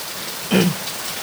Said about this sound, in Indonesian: Uh, ini uh, hujannya deras banget. Ya, hujannya deras banget.